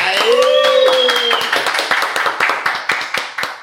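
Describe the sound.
A short round of applause welcoming a guest onto a show: a few people clap in a quick, uneven patter of sharp claps, with voices calling out over the start before the clapping carries on by itself.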